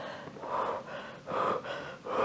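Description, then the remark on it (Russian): A person demonstrates deep, steady breathing, with about four loud, airy inhales and exhales following each other in an even rhythm and no talking. “кто-то дышит, делает так”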